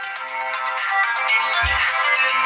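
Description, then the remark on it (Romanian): A mobile phone ringtone for an incoming call from Daniel Nazare plays loudly and steadily during a live radio broadcast, a bright, busy melody filling the whole clip, with a brief low thump partway through. “Știi, mă sună Daniel Nazare.”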